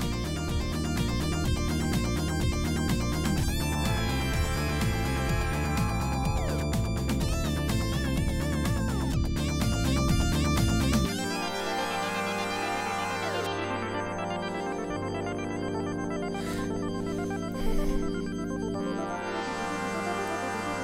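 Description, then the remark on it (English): Dense electronic synth music with layered sustained tones and pulsing low notes that swell in waves, then the bass drops away, leaving shimmering high synth textures; no voices. “Man, it's just it's like so synthy.”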